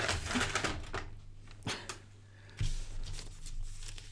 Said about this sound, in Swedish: Nu kommer det prassla lite.